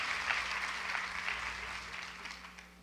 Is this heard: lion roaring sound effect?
no